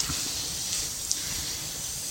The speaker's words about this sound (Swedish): Ja, så låter det när det kokar. Middagsmaten.